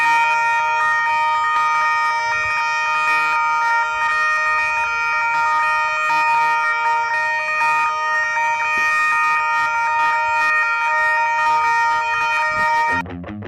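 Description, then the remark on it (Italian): Emergency vehicle sirens blare loudly and continuously, a dense layer of sustained, steady tones with no talking, cutting off abruptly just before the end. “Le sirene, le sirene.”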